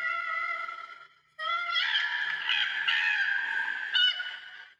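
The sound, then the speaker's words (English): A koala's wailing, screaming distress call: loud, harsh and high-pitched, with a short wail, a brief pause, then a longer quavering scream. No one speaks over it. “Okay, so that is the wailing screaming call, also known as a distress call. Koalas often make this sound when bickering with another koala or disturbed or alarmed by another species.”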